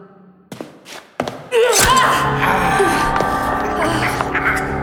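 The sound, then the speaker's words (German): A couple of dull chopping thuds land in near silence, then a heavy chop of a butcher knife cutting off a bride's finger at an altar sets off a loud, sustained wash of harsh, ringing noise that carries on to the end. “Zack, er hackt ihren vollen Finger ab.”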